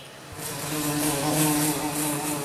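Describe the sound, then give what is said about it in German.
A housefly buzzes steadily in a bedroom in the evening while someone lies in bed, a low droning hum that swells slightly after a brief start and holds its pitch throughout, with no voices. “Eine Fliege in deinem Zimmer.”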